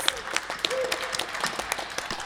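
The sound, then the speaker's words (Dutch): An audience applauds, many hands clapping in a dense, steady patter with a few sharper claps and a brief whistle or cheer over it. “Ja, applaus voor jezelf en dank je voor het komen.”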